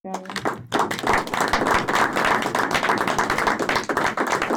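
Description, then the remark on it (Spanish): A crowd breaks into loud, steady applause for maestro Camilla, a therapist and radio host, with many hands clapping in a dense, continuous patter that holds for about four seconds. “Pero yo, yo quisiera cerrar al maestro Camilla con un fuerte aplauso.”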